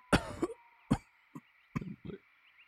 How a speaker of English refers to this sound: a body is coughing.